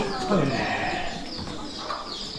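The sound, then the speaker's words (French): Sheep bleat in a sheepfold, one wavering, nasal bleat standing out early over a steady murmur of other animals, with more faint calls mixed into the busy background. “Alors, les tables, on passe dans les tables bergerie.”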